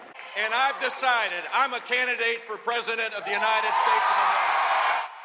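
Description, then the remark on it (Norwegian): A crowd in a college sports hall in Miami chants in loud, rhythmic unison, voices rising and falling in short repeated bursts, then the chanting dissolves into a sustained wash of cheering and noise for Florida's former governor that cuts off abruptly. “salsa blir avløst av taktfaste rop i idrettshallen ved en høyskole i Miami.”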